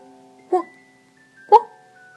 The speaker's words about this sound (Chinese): 老奶奶篮子里的小狗叫了起来。一会儿功夫，那只小狗就站在老先生门阶上，欢快地叫着。